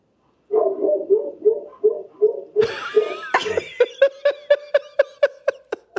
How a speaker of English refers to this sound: Dogs. oh, that's just dogs. That's just Francis is going too. They're all on the front porch.